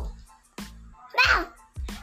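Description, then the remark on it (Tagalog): A voice imitates a dog barking during a recording session of animal sounds, with a few short, sharp bursts spaced apart and one louder, drawn-out yelp in the middle. “Kalawa, aso.”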